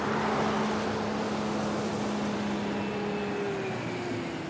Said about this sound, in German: Ich bin 80 oder 100 Meter weit gekommen, da höre ich im Verkehrslärm den Motor des 12-Tonners starten.